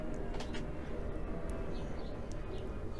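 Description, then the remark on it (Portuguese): A jet engine roars steadily and loudly overhead, a dense, constant rumble filling the whole recording with no voices, just a few faint higher chirps over it. “Vai passar um, um avião Parece que a turbina do avião tá dentro do meu quarto, alto pra caralho.”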